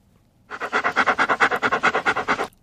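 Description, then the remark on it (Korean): A dog pants rapidly and steadily for about two seconds, around fifteen quick rhythmic breaths, fairly loud, with no voices present. “톱질하는 소리 같겠는데, 개가 헥헥거리는 소리입니다.”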